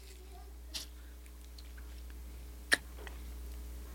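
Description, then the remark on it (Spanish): Chewing on a Bianchi passion-fruit chocolate candy, with a few sparse, crisp bites and crunches standing out over a quiet, steady low hum, with no talking. “Yo no sé si se podía masticar. Claro, de poder sí se pudo.”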